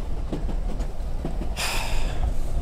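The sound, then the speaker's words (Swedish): A steady low rumble of a moving train, with faint, irregular clacks of wheels on rail joints and a brief hissing burst partway through. Nobody speaks. “Det är fan trist med tåg.”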